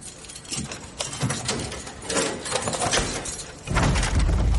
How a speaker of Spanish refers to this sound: Tormund le da unas llaves. John abre la reja.